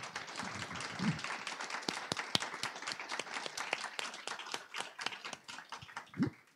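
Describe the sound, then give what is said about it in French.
An audience applauds steadily for several seconds, a dense wash of many hands clapping with some sharper individual claps standing out, and no talking over it. “Merci, on peut déjà les applaudir.”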